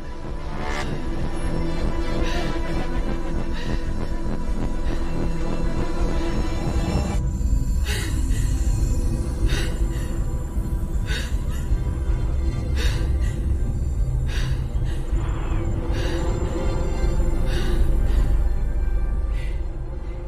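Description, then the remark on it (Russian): Ragged, uneven breathing of a woman heard as if from inside her spacesuit helmet, short airy gasps recurring irregularly over a dense, loud low rumble that fills the whole stretch. “мы слышим прерывистое дыхание главной героини, как бы изнутри ее скафандра”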